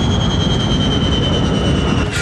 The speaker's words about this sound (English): The passengers can hear the sound of the engines beginning to shut down.